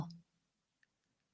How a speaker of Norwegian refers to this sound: Jeg hører en klokke som tikker.